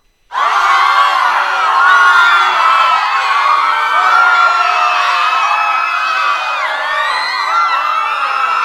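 A loud crowd screams and shrieks all at once, a dense wall of high-pitched voices that starts abruptly and stays intense for several seconds, with no clear speech.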